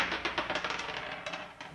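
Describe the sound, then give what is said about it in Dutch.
A die is rolled and clatters across a tabletop in a quick burst of sharp, irregular clicks that bounce and gradually settle, landing on six; moderately quiet, with no one talking. “Oké, nou, hier is de dobbelsteen. Neem hem ter hand.”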